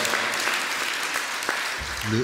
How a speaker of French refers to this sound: On les salue en ce moment. Euh, peut-être on pourrait les, applaudir, qu'ils entendent le son de nos applaudissements.